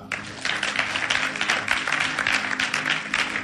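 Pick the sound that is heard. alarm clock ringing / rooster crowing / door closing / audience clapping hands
audience clapping hands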